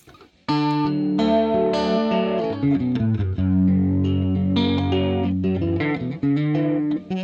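An electric guitar riff played with effects and a touch of distortion, rich chords and melodic lines ringing out loud and continuous after a brief quiet start, with no voices.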